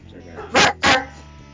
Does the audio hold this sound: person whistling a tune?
no